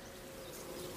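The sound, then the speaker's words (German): A steady, dense hum of many honeybees buzzing together inside a freshly populated school hive box painted by children, continuous and even throughout, with no voices present. “Und ihr hört eben im Hintergrund das emsige Treiben.”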